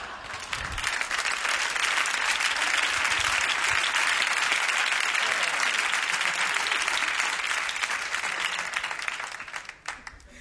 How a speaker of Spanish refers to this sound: Gracias por aplaudir un chiste de Nietzsche.